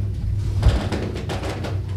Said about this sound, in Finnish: vartija paiskasi oven kiinni ja lähti